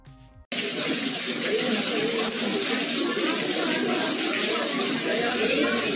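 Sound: heavy rainstorm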